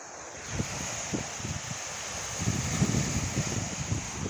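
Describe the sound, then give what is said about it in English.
Gentle lake waves lap against the shore at 12th Street Beach in Chicago, Illinois, in soft, repeating splashes over a steady wash of wind noise, fairly quiet, with no voices. “I'm at 12th Street Beach in Chicago, Illinois. Listen to the sound of the water.”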